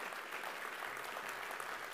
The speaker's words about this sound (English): Yeah. You can stop clapping.